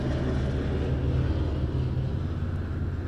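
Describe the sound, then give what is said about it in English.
A steady, low droning rumble of an airplane passing overhead fills the whole moment, fairly loud and continuous with no voices over it. “Um, there's a plane overhead.”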